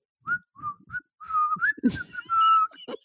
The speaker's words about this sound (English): there's a fucking whistle again. Sometimes if he's just whistling for fun, then he gets in trouble and I feel bad.